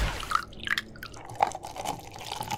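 Coffee pours into a cup for a couple of seconds, with a trickling, gurgling splash and small plinking drips. No voices.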